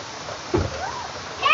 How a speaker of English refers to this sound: Oh my goodness, it just started coming down, y'all. The rain was coming down.